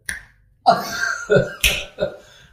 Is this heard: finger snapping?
yes